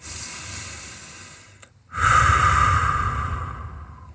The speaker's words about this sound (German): ganz tiefe Atemzüge nehmen. Am besten in den Bauch